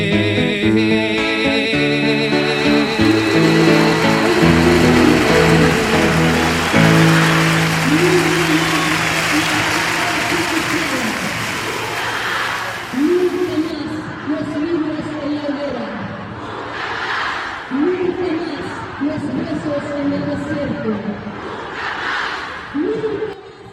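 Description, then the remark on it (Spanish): A large outdoor crowd in the streets of Santiago, Chile, sings together loudly at first, then breaks into a rhythmic chant of short shouted phrases repeating every couple of seconds, with clapping and noise from the street around them. “Ahí estamos escuchando en las calles de Santiago 50 años después el canto de esperanza, el grito del no basta, los cantos de esperanza para los niños en la Alameda.”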